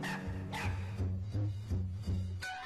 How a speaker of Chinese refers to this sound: 他叫一声“汪汪”，回声呢也叫一声。汪汪！